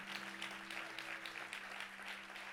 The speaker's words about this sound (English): Come on, give them a faith clap right now.